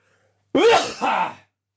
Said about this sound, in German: Ähm, ja, wenn ich niese, ist immer laut.